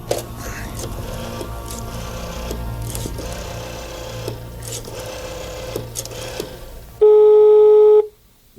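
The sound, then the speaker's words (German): A rattling, whirring mechanical clatter runs for several seconds, then a single loud, steady telephone ringing tone sounds for about a second before cutting off, as someone picks up a telephone receiver and calls headquarters. “Zielstrebig griff der erste Detektiv nach dem Telefonhörer und rief in der Zentrale an.”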